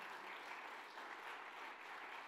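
A crowd bursts into steady, dense applause, many hands clapping together in a continuous wash of sound that holds at an even, strong level throughout.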